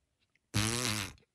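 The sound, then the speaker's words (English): A single loud, wet fart sound effect rips out abruptly, buzzy and sputtering for about half a second before trailing off, with near silence on either side. “And then it just kind of ended with a big wet fart.”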